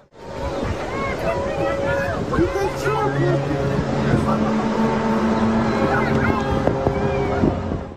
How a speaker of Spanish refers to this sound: En Rusia ha ocurrido un suceso único, la aparición de una misteriosa formación de luces, al tiempo que se escuchan los sonidos conocidos como the hum o el zumbido.